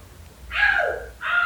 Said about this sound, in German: Warum schreit dein Kind die ganze Zeit Au eigentlich?